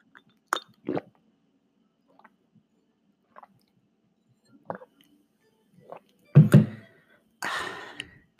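ASMR-style sipping of water from a glass: a few soft clinks and wet mouth clicks, then a louder slurp and gulp, followed by a breathy exhale. No one speaks.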